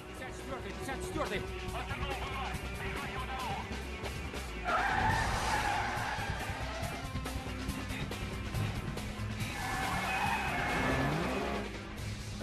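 Car tires squeal and skid loudly in two bursts, with engines roaring underneath and a steady background rumble throughout.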